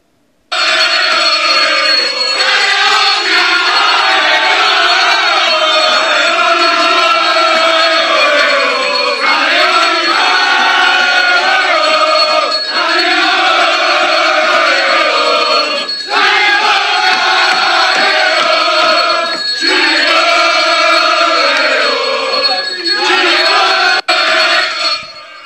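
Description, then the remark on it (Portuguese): A large crowd of Corinthians football supporters chants loudly and continuously in a stadium, voices merging into a dense, sustained roar with rhythmic rises and brief dips in the singing. “É isso aí, é a torcida do Corinthians que costuma invadir também, né?”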